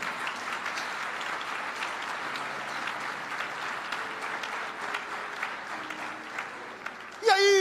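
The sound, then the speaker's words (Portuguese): An audience applauds Jesus for the Bible, a dense wash of many hands clapping at an even level for several seconds, with a few faint voices mixed in before a voice cuts in at the end. “Você pode aplaudir a Jesus pela Bíblia, isso aqui é Bíblia.”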